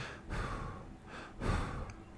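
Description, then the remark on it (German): A person imitates heavy, raspy breathing, as of Justin breathing down on Tyrod Taylor from behind, with three slow, breathy inhale-exhale pushes in a steady rhythm and no words spoken. “Der atmet so von oben auf ihn herab.”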